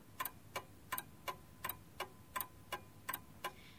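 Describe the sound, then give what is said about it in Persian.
A clock ticks steadily in a completely silent room, about three sharp clicks per second in an even rhythm, fairly quiet against a faint background hush with no other sounds. “اما اتاقم تو سکوت کامل فرو رفته بود و فقط صدای تیک تیک ساعت رو میشنیدم.”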